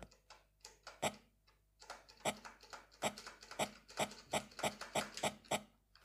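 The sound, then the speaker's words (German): A steady series of crunchy footsteps at a brisk walking pace, each step a short scraping thud, with no talking over them. “Ich sag mal nichts, dann hört man deine Schritte auch so schön.”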